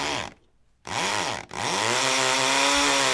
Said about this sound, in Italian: Ma questo è um, un levigatore? Cos'è no, un levigatore? Eh, oh, che, cos'era? Credo che sia una, eh, una motosega.